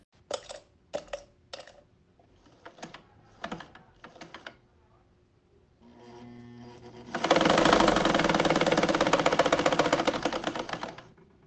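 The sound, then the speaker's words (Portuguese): A family-heirloom sewing machine, about 80 years old, clacks through a few short bursts of stitching, then after a brief pause runs steadily and loudly, its rapid mechanical ticking filling the last several seconds. No one speaks. “Ela escolheu os sons de sua máquina de costura, que é uma herança de família.”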